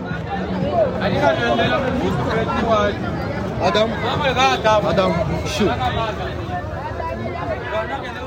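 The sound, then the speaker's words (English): A busy outdoor crowd in a street market in the town of Mbuji-Mayi, with many overlapping voices chattering and calling out, a steady dense hubbub with occasional louder shouts and background movement, recorded while walking through the market to buy fruit and vegetables. “What you just heard was me walking in the market trying to purchase some fruit and vegetables for the next day's breakfast.”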